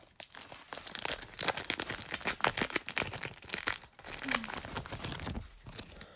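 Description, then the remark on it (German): A Pokémon trading card booster pack from a mystery box is torn open, a continuous stretch of bright crinkling and ripping of foil with sharp crackles throughout, fairly loud, with no talking over it. “Okay, und ich ziehe dann Pack aus der Mystery Box.”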